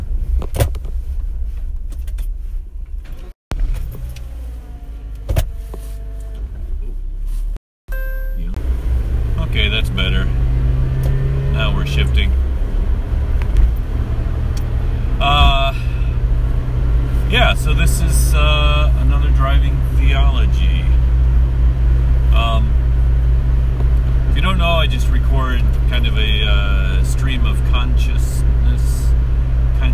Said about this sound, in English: I'm gonna turn off my car and see if I can reset it. But unfortunately, it's gonna reset the recording, so there'll be a blip.